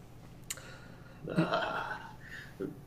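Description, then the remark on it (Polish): A voice imitates a monster's dying croak: one raspy, gurgling, throaty rasp lasting about a second, preceded by a brief click and trailing off into a faint breathy sound. “No a w końcu nawet mm, praktycznie bezgłośnie potwór y, mm, będzie dogorywał, wyda z siebie jeszcze tylko y, skrzekliwe harknięcie przed samą śmiercią i zobaczycie, że potężne cielęsko przestaje się unosić w jakimś tam oddechu.”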